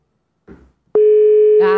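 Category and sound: signal or alarm, telephone call ringing tone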